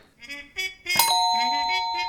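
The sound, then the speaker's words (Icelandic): In a music quiz, a single bright answer bell dings partway through and sustains clearly to the end, cutting in over a few short, muffled notes of a trumpet played with a mute heard just before it. “Hér eru hljóðfærleikarar, tónlistamenn og starfsmenn í stærsta tónlistarhúsi landsins og það er spurning hvort að það verði ekki hörð bara átt að hér um bjöllina í næsta lið.”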